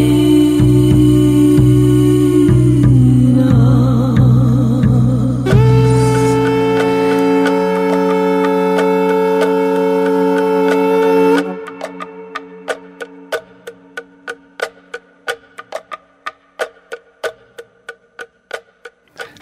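A song plays at full volume, with sustained melodic tones and wavering, voice-like notes for about eleven seconds, then gives way to a quieter passage of steady, clock-like ticking beats.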